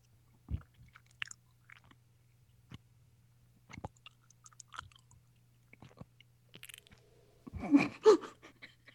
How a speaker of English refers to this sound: Well, I can see you chewing. oh my god, I can't even get past one. I was eating, I was, I was eating gummies. They're really mm-hmm. good. These are all Valentine themed, by the way,